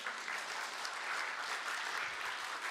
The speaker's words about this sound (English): So that's a list of favorite things from one of our young people. You can clap for him. That's really good.